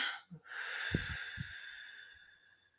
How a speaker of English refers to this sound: breathe it out.